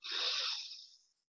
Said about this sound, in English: Huge breath in,